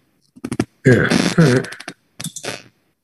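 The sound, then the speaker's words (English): A few quick, crisp computer mouse or keyboard clicks as someone answers emails, then a longer rough, voiced burst like a grunt or burp, followed by another short cluster of clicks. “I was clicking uh, away emails.”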